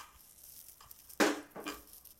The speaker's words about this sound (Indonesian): ini nugget sedang digoreng